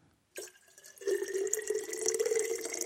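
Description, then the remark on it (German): Liquid pours steadily into a glass as a person pours a sip for themselves to drink, with a splashing start followed by a continuous gurgle whose pitch creeps upward as the glass fills. No one speaks. “Nee, ich schütte mir nur rein? einfach einen Schluck zu trinken okay.”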